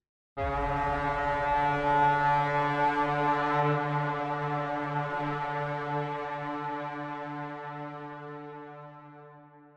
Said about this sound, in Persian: صدای شیپوری بلند شد. آوای هشدار ضعیفی که معلوم نبود از کجاست.